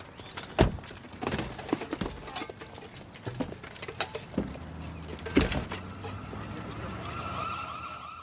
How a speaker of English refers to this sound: that's the sound of a lot of men, women, and children walking around New York armed to the teeth